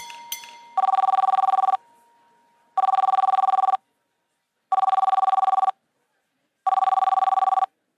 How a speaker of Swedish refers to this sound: Telefonen inne på det gemensamma arbetsrummet som han delade med fyra andra läkare ringde oavbrutet tills han hann fram och lyfte luren för att svara.